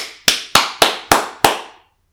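Five sharp hand claps from a single person applauding the listener, evenly paced at a slow, deliberate rhythm, each crisp and bright with a short decay. No voices accompany them.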